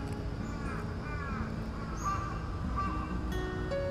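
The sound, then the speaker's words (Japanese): A crow caws a few times in the morning, hoarse harsh calls set against a steady hum of outdoor background noise with no one speaking. “今カラスも「おはよう」って言ってくれました”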